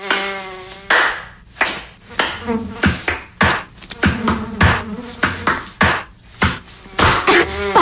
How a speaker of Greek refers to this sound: Για κουνούπια και άλλα υπτάμενα έντομα υγειονομική σημασία